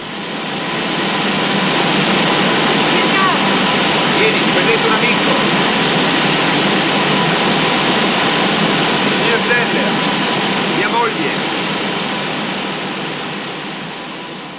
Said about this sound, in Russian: Четвертый пример — промышленные шумы из Красной пустыни, в которых порой тонет даже диалог. Мы видим, как герои фильма разговаривают о чем-то друг с другом, но почти не слышим их за заводским грохотом.